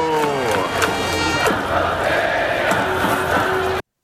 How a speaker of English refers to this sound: the cheering section has a song that goes Yamada Hito